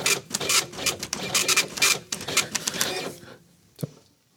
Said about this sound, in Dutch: Le Champion is onze podcast aan het uitprinten, ik hoor het al.